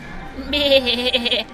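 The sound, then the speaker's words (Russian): A human voice imitates a ram's bleat, a single wavering, nasal 'meh' lasting about a second, fairly loud, with no other sounds around it. “Баран сел на стул и сказал”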